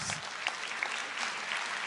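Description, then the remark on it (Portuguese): An audience claps steadily, a dense wash of many hands applauding at once, fairly even in loudness throughout with no voices standing out. “Pode aplaudir, foi ela, não fui eu que inventei essa história.”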